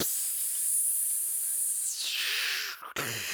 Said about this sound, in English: We will be in the sauna. You're going to hear steam, steam on the rock.